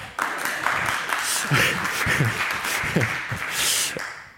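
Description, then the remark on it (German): An audience applauds steadily for a few seconds, a dense, hissing wash of many clapping hands, with a few voices faintly audible beneath it. “War das ein Applaus?”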